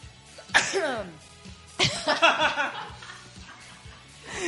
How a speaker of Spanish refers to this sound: voy a estornudar